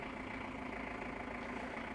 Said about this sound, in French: Il y a une voiture qui passe.